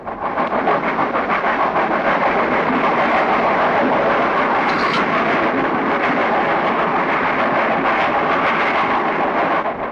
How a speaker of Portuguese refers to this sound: O velho trem de ferro fez furor no século passado. Carro que anda sozinho cuspindo fumaça e faísca.